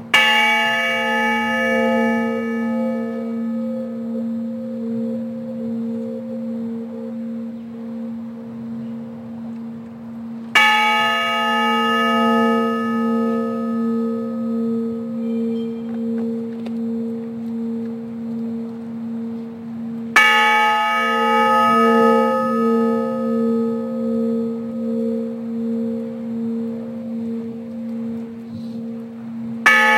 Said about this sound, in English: Today, the Honor Bell will be heard during a ceremony at the Horan and McConaty Memorial Gardens in Centennial.